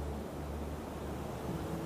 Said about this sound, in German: Und vergesst nicht tief einzuatmen und die Meeresluft zu genießen. und hört das Wellenrauschen aus zwei verschiedenen Richtungen.